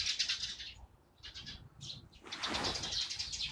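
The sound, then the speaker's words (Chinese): A flock of sparrows chirping in dense, overlapping bursts of high, twittering calls at the covered walkway of Jing Bridge, an octagonal pavilion where sparrows nest, with a brief rustling flutter of wings partway through; no one speaks. “我现在是站在静桥的这个廊子上面，你们听到的都是麻雀的声音。”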